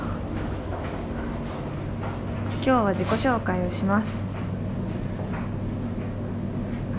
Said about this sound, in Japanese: 洗濯機ある洗濯機の音がうるさいですが